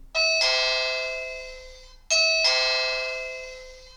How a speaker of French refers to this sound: Qui sonne, à ton avis, à la porte de la maison